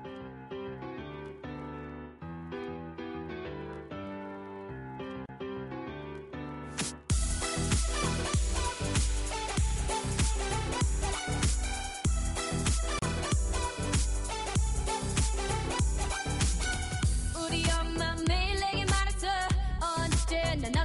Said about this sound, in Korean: 음악 하나 더 듣고 옵니다.